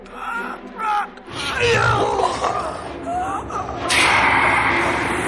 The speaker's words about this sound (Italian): Le spine del sacro serpente ti stringono alla gola. Ti manca l'aria. Non riesci più a respirare. Stai soffocando.